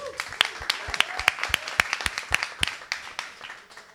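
Audience applause: a burst of many sharp, irregular claps crackling together, strongest in the first few seconds and then thinning out as it fades, with no voices over it.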